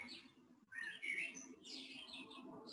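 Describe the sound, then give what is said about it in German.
Small birds sing and chirp outdoors on a 25-degree day, a busy overlapping chorus of bright high tweets and trills, continuous over a soft background hum with no voices. “Hier singen jetzt die Vögelchen.”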